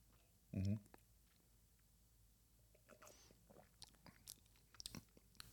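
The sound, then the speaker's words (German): A short slurp of whisky being sipped, followed by soft wet mouth clicks and swallowing noises. “Ich trinke genau, heute übrigens mit … Nippen. Nippen.”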